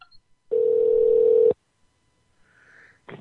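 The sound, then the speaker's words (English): A single steady ringback tone sounds over a phone line for about a second as a call is transferred, fairly loud and filtered, followed by silence and faint line hiss. “uh, it's ringing.”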